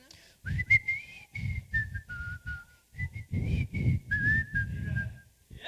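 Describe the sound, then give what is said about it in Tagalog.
A person whistles a bright, bouncy melody of short gliding notes, clear, with two brief phrases separated by a short pause and soft low rumbling underneath. “Pa, una, pasipol-sipol ka na muna, na.”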